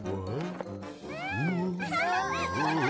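Several drawn-out, sing-song cat meows in quick succession, loud and tonal with rising and falling pitch, sounding like voices imitating kittens rather than real cats.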